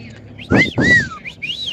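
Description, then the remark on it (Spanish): A fairly loud two-part wolf whistle at a young woman, a rising sweep followed by a longer falling glide, trailed by a few softer whistled tones, with breathy low rumble underneath. “todo por que hice un guiño a una muchacha y pues le venté su silbidito de”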